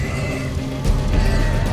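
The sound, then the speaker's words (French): Livestock cry out in the holds of the ships L'Étoile and La Boudeuse during a terrible storm in a narrow, icy channel between mountains, with loud, overlapping animal calls that have a horse-like whinnying quality, sustained throughout, with a sudden low surge of noise about halfway through. “Dans les cales, les bêtes hurlent.”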